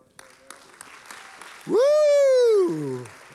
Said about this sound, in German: Wow! Amazing! Lass uns, lass uns einen Applaus geben. Das ist wirklich amazing.